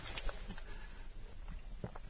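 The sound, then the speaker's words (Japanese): A spoon scoops into a soft, jiggly layered pudding cake in its cup, with sponge and a coffee jelly layer at the bottom, giving a few quiet, hollow clicks and taps at uneven intervals against a faint background. “うん上からかぽっていっていいですか、ね、ああ、いいよ。”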